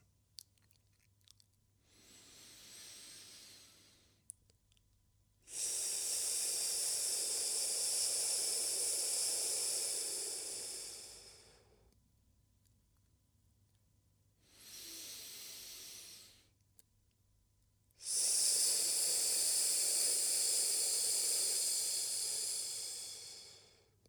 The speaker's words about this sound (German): Atme jetzt wieder ein und aus durch die Nase ein und wenn du ausatmest, nimmst du einen S-Laut, um die Luft ganz langsam, ganz langsam rauszulassen.